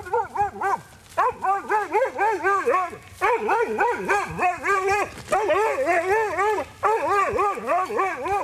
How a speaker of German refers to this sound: So tönt das, wenn ein Hund ein Wildschwein jagt bzw. anbildet und probiert zu jagen, sodass der Jäger dann schlussendlich das Wildschwein auch schiessen kann.